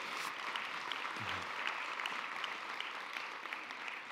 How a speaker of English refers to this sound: Would you guys welcome them? Give them a round of applause for coming today.